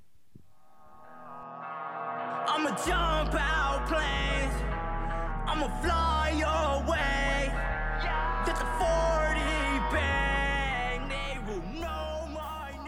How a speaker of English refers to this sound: I was listening to that song you just heard. It's called ….